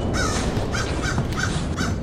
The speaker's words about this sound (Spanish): Capitán, estamos cerca de la costa ya que hay muchas aves.